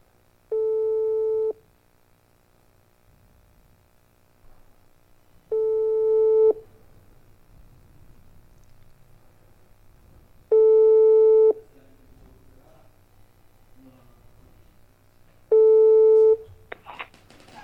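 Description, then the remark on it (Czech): Ringback tone of an outgoing phone call made on Rádio G to a band: four steady, mid-pitched beeps, each lasting about a second and repeating every five seconds, over a faint low hum with no talking. “Tak počkáme, už to zvoní.”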